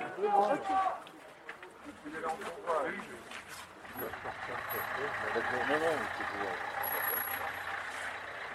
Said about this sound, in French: Les voitures transportant les familles défilent une à une dans le silence entourées des bénévoles qui se tiennent tout droit à leur côté, attentif.